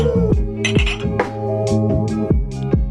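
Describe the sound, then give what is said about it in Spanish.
Mugs clink together several times in an irregular sequence, each bright tap leaving a ringing tone that lingers under the next strike. No one speaks. “Saca tu tazón.”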